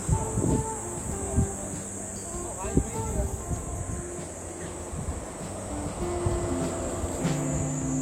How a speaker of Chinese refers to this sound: 这地方因为植被太好了，所以知了也特别多。